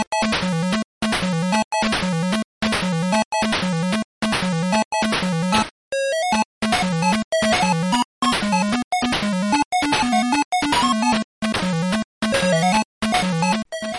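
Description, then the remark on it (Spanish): Upbeat Sega Master System video game music from Fantasy Zone, a game starring Opa Opa: bright, buzzy chiptune melody over a bouncing bass line, played in short repeated phrases separated by brief pauses, fairly loud with no voices. “Estamos escuchando la canción Tabas del videojuego de Master System Fantasy Zone, precisamente un juego protagonizado, uno de los primeros juegos protagonizados por Opa Opa,”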